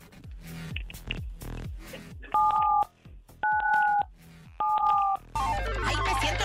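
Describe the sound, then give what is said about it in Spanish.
Three loud telephone keypad dialing tones as a caller in Santa Fe presses 977 on the phone, each a steady dual-pitch beep about half a second long, pressed at an even pace, with thumping music before and a noisy burst after. “Oye, entonces, presiona en tu teléfono el 977, corre.”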